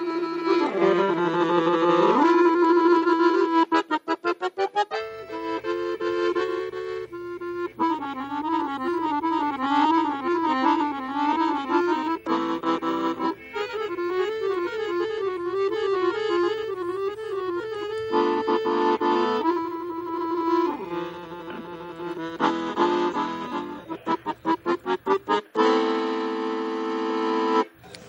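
An accordion made in Castelfidardo plays a lively tune alone, with bright reedy sustained notes, quick melodic runs and wavering chords over a steady low bass line, loud and continuous throughout.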